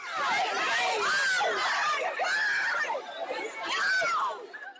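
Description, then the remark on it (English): A dense crowd of shoppers in a Victoria's Secret Pink store in Chattanooga shouting over one another as they stampede and shove over Sherpa jackets, with high, excited voices and occasional shrieks rising out of a constant loud din. The commotion is continuous throughout. “Look at this crush of shoppers in a Chattanooga Victoria's Secret pink store. The stampede over Sherpa jackets, people seen shoving each other, one sales rep climbing on a table to escape the crowd.”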